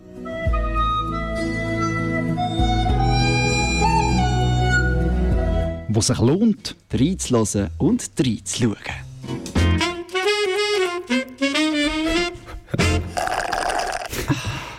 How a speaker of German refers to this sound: der wahrscheinlich längste Jingle in der Geschichte vom Frappe. Ja. Das Ziel ist für den nächsten Jingle, er muss eine Minute lang gehen.